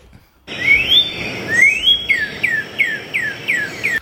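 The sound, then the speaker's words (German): A bird's mating call: two long rising whistles, then a quick run of six short, downward-sliding chirps in steady rhythm, clear and fairly loud over a faint background hiss. “Das ist übrigens der Paarungsruf.”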